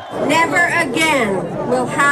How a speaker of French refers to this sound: Et quelques mois plus tard, la foule scande Madeleine Renault. Madeleine pour accueillir la secrétaire d'État au Kosovo, Madeleine Albright, et un discours triomphal.